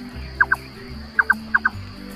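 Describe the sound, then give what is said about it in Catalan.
A red-necked nightjar calling, a typical summer-evening sound of Mediterranean countryside: three quick pairs of hollow, knocking double notes at a mid pitch, clear and fairly loud over a steady low rumble, with brief pauses between pairs. “Tu camines als vespres d'estiu amb el gosset, camines amb algú a una zona de camp, de clima mediterrani, i sentiràs aquest típic i característic so de vespre.”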